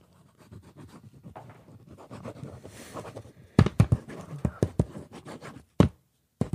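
A pen scratches across paper as someone writes something down, starting as soft continuous scribbling, then turning into louder, sharp strokes and taps in quick, irregular bursts.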